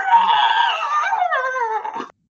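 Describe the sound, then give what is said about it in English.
A person vocally imitates a creature's squealing moo: one loud, drawn-out call lasting about two seconds, starting shrill and sliding downward in pitch before cutting off, with no other sounds. “hear it squeal moo i don't know it like yell it like makes this like horrendous noise that you don't know what it is”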